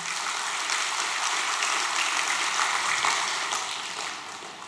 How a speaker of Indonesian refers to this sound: Yang setuju dengan firman ini boleh kasih tepuk tangan buat Tuhan.